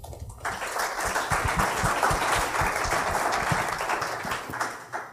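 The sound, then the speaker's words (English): A crowd applauds a panel of speakers for about five seconds, a dense wash of many hands clapping at once, fairly loud, starting abruptly and tapering slightly at the end. “So please give them a round of applause.”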